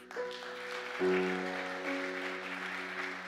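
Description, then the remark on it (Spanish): An audience breaks into loud, sustained applause, a dense crackle of many hands clapping at once, while a held keyboard chord swells underneath and rings on throughout. “El otro aplauso fuerte.”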